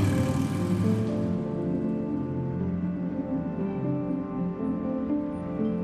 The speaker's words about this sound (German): Er reagiert wohl auf ein vorbeifahrendes Motorrad.